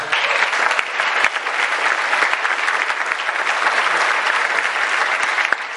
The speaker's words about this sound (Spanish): para quien les pido un súper aplauso